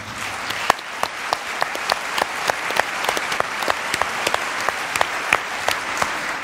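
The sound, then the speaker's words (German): An audience applauds steadily for the event's partners, a dense wash of clapping with sharper individual claps popping out at a fairly regular pace. No one speaks over it. “Mit dem großen Applaus für unsere ganzen Partner.”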